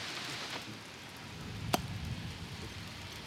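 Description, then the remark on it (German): Steady rain hisses outdoors at a moderate, even level, a broad wash of patter with one sharp, brief tap or crack standing out midway. “50% Regenwahrscheinlichkeit, ja, ja. sowas soll schon passieren. Aber hast du ja gesehen?”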